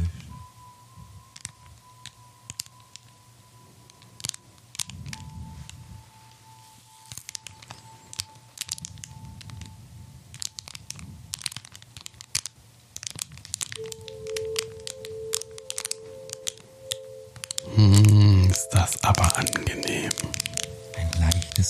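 Crisp crinkling and rustling of packaging with scattered sharp crackles and small pops, growing into a louder, denser burst of crumpling near the end, with faint breathy sounds underneath.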